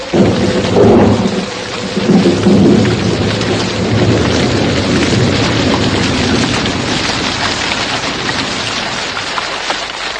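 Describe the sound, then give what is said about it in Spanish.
Steady, heavy rain pours down in a dense, continuous hiss, with deep rumbles of thunder rolling underneath in the first few seconds. No one speaks. “Justo entonces, comenzó a llover y la brisa se aletargó sobre su espalda.”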